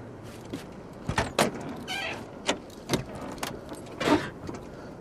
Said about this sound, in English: Get in the driver's seat. Open the door and get in the car.